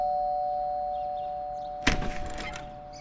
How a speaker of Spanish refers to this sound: Después de seis timbres, Ben por fin abrió la puerta.